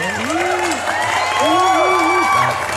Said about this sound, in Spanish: Gracias a todos los que compartieron. Aplausos.